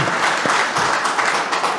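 An audience applauding steadily for Alexandre Burkhardt's reportage, a dense wash of many hands clapping at a fairly loud, even level throughout, with no voices standing out.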